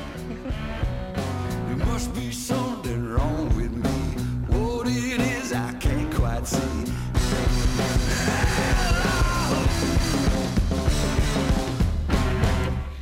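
A recorded song plays steadily throughout, with a full band, a strong beat and a gritty, wavering sung vocal riding loudly over dense guitar and drums.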